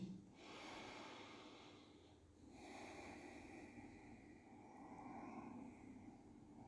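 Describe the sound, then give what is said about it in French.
A slow, deep transition breath: a long airy inhale followed by a steady, drawn-out exhale, with no talking. “Respiration de transition.”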